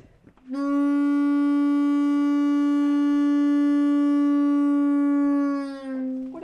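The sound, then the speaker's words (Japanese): A single long, steady blast from an antique ship's foghorn, a hand-pumped horn with a tube-shaped end that sounds when air is pumped through it, drones for about five seconds, loud, with a rich buzzy tone that wavers slightly before it trails off and briefly restarts. The horn was donated from the town of Yuasa and is displayed in a folk-tools museum. “昔の船に積むんですね船の無敵、はい、これがそうなんですかへえ面白いラッパみたいなね、はい、筒状のものが先端についててこれ空気を送って音を鳴らす感じなんでしょうね”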